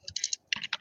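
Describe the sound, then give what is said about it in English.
Quick keystrokes clatter on a computer keyboard as someone types out a question, in two short bursts separated by a brief pause, each tap crisp and clicky with no voices present. “Uh, I mean, that is the sound of me typing it.”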